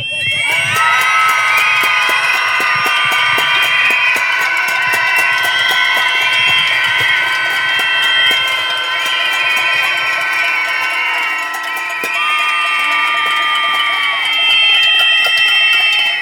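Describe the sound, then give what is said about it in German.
A large crowd at a protest against femicide and violence against women screams together in one loud, sustained collective roar of many high voices, holding steady for about sixteen seconds with only slight dips before swelling again. “Hier können wir nicht mehr wegschauen. Das ist zum Schreien. Jetzt!”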